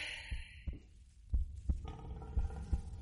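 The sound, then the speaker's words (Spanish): Heavy, booming footsteps of a boar-like animal four times the size of a normal boar thud at a steady pace, each low impact growing louder, with a faint hum underneath and no voices. “El sonido de pisadas aumenta.”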